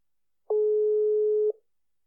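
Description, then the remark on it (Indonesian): A single steady telephone tone sounds once for about a second, a clear, loud beep standing alone with silence before and after it, as a phone call is being dialed and connects. “Mari kita telepon siapakah dia?”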